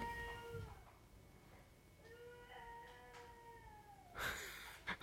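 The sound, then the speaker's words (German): A child's voice comes through a baby monitor in long, drawn-out whining tones, thin and faint over steady electronic hiss, ending with a couple of brief crackling bursts. “Ah, man hört ein Kind.”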